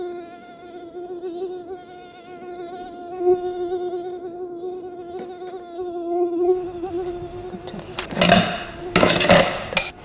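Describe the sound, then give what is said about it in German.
An Asian tiger mosquito's thin, high-pitched whine drones steadily, wavering slightly in pitch, with a few sharp clattering clinks breaking in near the end. “Kaum ein Tierlaut nervt Menschen so sehr wie das hohe Sirren, besonders wenn es nachts im Schlafzimmer direkt neben dem Ohr auftaucht.”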